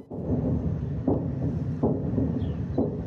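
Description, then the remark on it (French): A steady low rumble with three dull, booming thuds about a second apart, like explosions from continuous shelling, echoing, in the suburbs of Kyiv. No one speaks. “le son ininterrompu de ce qu'ils fuient une pluie d'explosions dans la banlieue de Kiev.”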